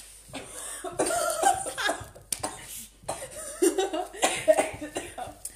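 A series of harsh, close coughs in uneven bursts, with brief gaps between fits and some breathy, laugh-like sounds mixed in.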